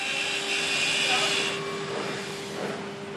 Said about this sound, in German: Diana führt die elektrische Schere genau nach Vorzeichnung, präzise und entschieden.